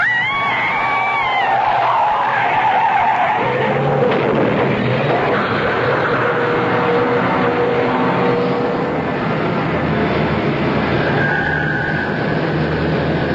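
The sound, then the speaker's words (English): Loud tires screech in wavering squeals as a car whose brakes have failed runs a red light and skids toward an oncoming truck, giving way to a heavy roaring rumble of vehicles that fills the rest of the scene, with a sustained horn-like tone near the end. “The brakes are gone. I'm down to the floor.”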